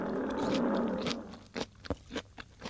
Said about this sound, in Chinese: 这时，突然传来一声凄厉的动物叫声，接着便是狮子痛快的嚼食声。